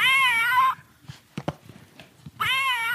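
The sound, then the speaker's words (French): Two loud, drawn-out cat meows with a harsh, tinny, low-quality character, one at the start and one at the end, separated by a quieter gap with scattered clicks and rustles. “C'est donc, euh, oui, c'est un bruit de qui miaule en très basse résolution.”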